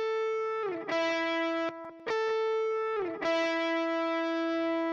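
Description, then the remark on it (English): A sustained electric guitar lead played without a saturation plugin, using the same settings as the first guitar lead, with a clean, harmonically rich tone, holding long notes with slides between them and a couple of brief gaps, loud with no talking. “And then I think there's like another lead, and this is literally just the same settings as the first guitar lead because it wasn't really doing anything, but I wanted some some mojo there.”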